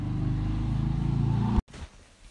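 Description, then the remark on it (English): A motorcycle engine rumbles loudly and steadily in the background with a low, buzzing drone for over a second, then cuts off abruptly, leaving only faint background noise. “We had a little bit of motorcycle action in the background there.”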